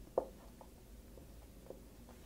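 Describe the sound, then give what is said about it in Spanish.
Soft scratchy strokes of a pen or marker drawing a picture of a car on a surface, a few short brief scribbles with one slightly sharper tap near the start, quiet with no talking. “Si tú tomas un carro, y perdona el dibujito del carro que no es mi fuerte, ¿verdad?”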